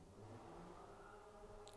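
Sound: car passing outside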